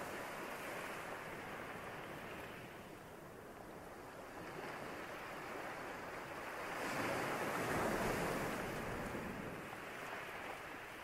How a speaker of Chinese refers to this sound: 仔细听海浪的声音，有想法跑出来了没关系，自觉之后再回到海浪的声音。